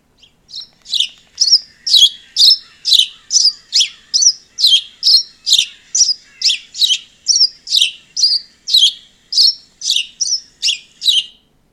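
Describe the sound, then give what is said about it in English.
A house sparrow's song: a long run of bright, repeated chirps at a steady, brisk rhythm, clear, with no other sounds around it. “This bird is the house sparrow.”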